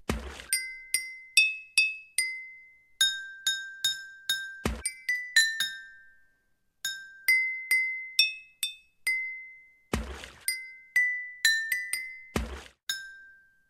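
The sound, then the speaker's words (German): Water-filled glasses struck one after another like a water organ, ringing out a simple song about water in clear, bell-like tones that decay between hits, with a few heavier knocks mixed in and no voices. “Wasserorgel, die zweite.”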